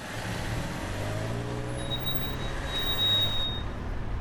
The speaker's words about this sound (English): amid the stop and go traffic in Jackson Ward.